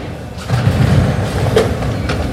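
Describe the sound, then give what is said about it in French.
A line 8 metro train rumbles into the station platform, a steady low mechanical roar with brief higher squeals and clanks, fairly loud, without any talking. “Ah, enfin, le métro”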